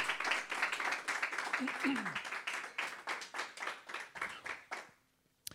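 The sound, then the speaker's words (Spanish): An audience applauds the Lord, many hands clapping in a steady, dense burst for about five seconds before it abruptly falls silent; a voice briefly calls out amid the clapping. “Give the Lord vamos a darle un aplauso en fe al Señor.”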